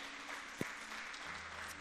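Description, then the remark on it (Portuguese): An audience breaks into steady applause for the Lord, a dense wash of many hands clapping together at an even level, with one sharper clap standing out briefly. “Se você crê que Deus é o seu refúgio, a sua fortaleza, aplauda o Senhor porque Ele é bom, amém?”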